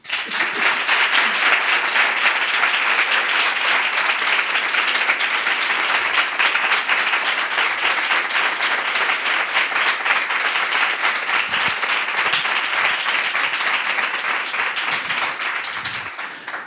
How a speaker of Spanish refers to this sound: Y por eso vamos a tener este pedazo de aplauso a la altura del invitado, porque hoy, ni más ni menos que aquí en el ámbito cultural de Callao, recibimos a Rodrigo Cortés.